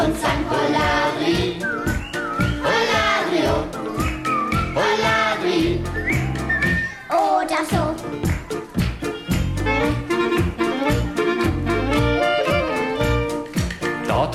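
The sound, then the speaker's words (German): A cheerful, carefree whistled tune bounces along over lively upbeat music with a steady beat, loud and continuous throughout, no voices speaking. “Ein Kühlschrank geht spazieren, er ging die Straße lang, lässig und beschwingt und er pfiff”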